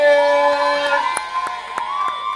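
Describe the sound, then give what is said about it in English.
A loud crowd at a comedy show cheers in a sustained roar for the act they paid to see, with shrill screams and whistles on top and a few sharp claps popping through at irregular intervals. “If y'all want to see the motherfucker that you paid to see, let me hear you make some noise.”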